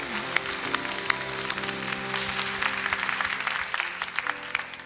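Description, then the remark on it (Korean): A church audience claps steadily for several seconds, applause of glory offered to the faithful Lord, a dense wash of hand claps with a few sharper individual claps popping out, and a low sustained organ or keyboard tone underneath. “우리 신실하신 주님께 약속을 지키시는 그 신실하신 주님께 영광의 박수를 올려드립니다”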